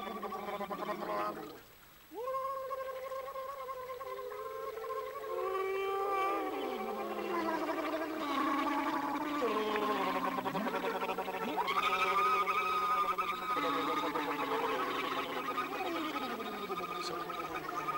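Musicians standing waist deep in water near a waterfall sing and blow into the water and bottles in a piece, making hollow, warbling hoots that slide up and down in pitch and overlap with bubbly gurgles, sustained after a short pause near the start.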